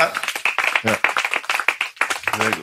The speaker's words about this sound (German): Du bist der Erste, der an diesem Ehrentisch zum dritten Mal sitzt. Erstmal Applaus.